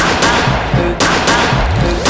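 Several sharp, loud gunshot sound effects crack out in an irregular burst, each a broad explosive bang layered over a steady, busy music backing.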